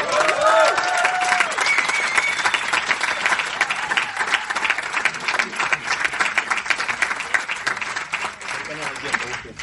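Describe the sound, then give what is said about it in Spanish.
An audience applauds a speaker introduced to talk about commitment, with dense, continuous clapping for the full stretch, a few cheers and tonal whistles rising early on, the sound holding loud and even throughout. “Fuerte el aplauso.”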